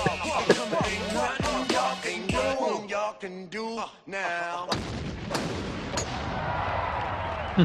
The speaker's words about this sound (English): This is the actual like they're showing the people in the video game from yeah you, you, can hear you can hear the golf balls being hit yeah it's the t- touch it really adds to it